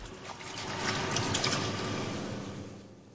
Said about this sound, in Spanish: El mando a distancia sale volando y aterriza en una plataforma metálica encharcada de agua.